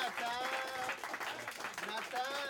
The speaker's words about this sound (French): Je réitère, euh, s'il vous plaît, une grosse main d'applaudissements pour les techniciens de ce soir. Très important.